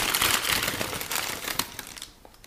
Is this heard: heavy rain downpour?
no